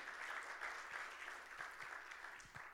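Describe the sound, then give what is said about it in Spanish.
An audience applauds for the Lord during a church sermon, a dense, even wash of many hands clapping together that holds at a fairly constant level for a few seconds with no voices standing out. “Le damos un aplauso al Señor, hermano.”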